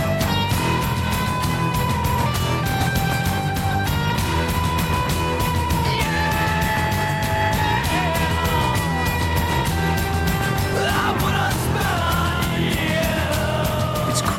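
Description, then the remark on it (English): An eerie, dense rock song plays loud and continuous, with sustained droning tones and a strained, wailing vocal that rises into scream-like cries near the end. “It's a creepy song. It is. Reminds me of … and …. With the screaming there.”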